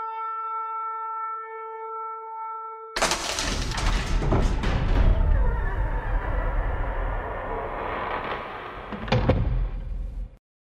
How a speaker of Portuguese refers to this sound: As portas da cidade acabaram de fechar para a noite.